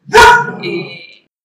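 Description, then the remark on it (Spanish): A small female dog lets out one sharp bark, trailing into a brief high-pitched whine. No other sounds follow. “bueno, porque tengo una perrita y. Las no intervenciones caninas que están sumamente perdonadas este, hoy, han, estado bastante.”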